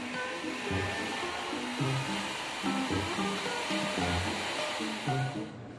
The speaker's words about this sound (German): Er zupft, zieht, dreht und föhnt. Nach einer halben Stunde steht der Bart.